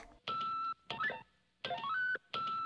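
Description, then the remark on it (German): Four short bursts of electronic keypad beeps from a combination lock at a pyramid entrance, fairly loud with brief pauses between them. Some hold one steady pitch, while others step upward through several quick tones. “Als er die letzte richtige Zahl eingetippt hatte, öffnete sich die schwere Tür.”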